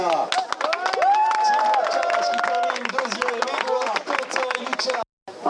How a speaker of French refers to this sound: Deuxième marche du podium, applaudissements s'il vous plaît pour la team Blocage.